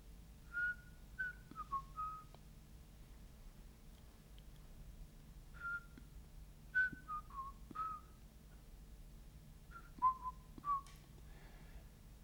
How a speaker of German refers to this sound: Sie pfeift zwischen den Zähnen ein paar Noten von etwas, das eine musikalische Phrase sein muss, eine Volksweise oder Melodie aber verzerrt und unzusammenhängend, so dass sie nur schwer zu erkennen ist.